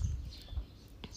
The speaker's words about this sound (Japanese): 今、皆さんの方に届いてるか分かりませんが、鳥の鳴き声が聞こえます。